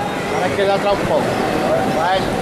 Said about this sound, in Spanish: Lejana, pero suena una saeta. Sí. No sé si ha empezado muy pronto, ¿no?